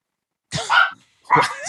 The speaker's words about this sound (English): You guys hear my pit bull? Hold on.